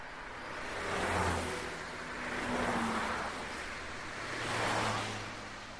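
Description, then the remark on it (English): Three cars whoosh past one after another at an intersection, each engine rumble swelling and fading at a steady pace, moderately loud, with no voices. “I slowed my pace as I reached an intersection where cars were zooming by.”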